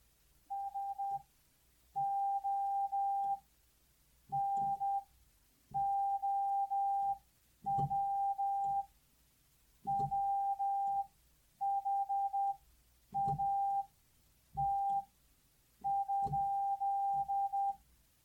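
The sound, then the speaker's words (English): Morse code sent as a single steady, fairly high-pitched tone, keyed on and off in a series of short and long bursts with brief gaps, loud and clear with no voices. “If you already know how to use Morse code, you know what we just said.”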